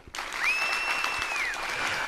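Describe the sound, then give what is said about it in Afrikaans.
A crowd of villagers cheers with joy and claps in a steady, noisy wash that starts abruptly, while a shrill whistle rises, holds a long high note, then slides down. “Hulle juig van vreugde.”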